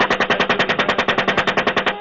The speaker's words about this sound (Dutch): En daarin is te zien hoe het Amerikaanse leger onschuldige burgers in Bagdad neerschoot.